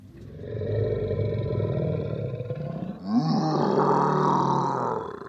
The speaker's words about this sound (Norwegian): Dette var lyden av et troll, ifølge NRK sitt lydarkiv.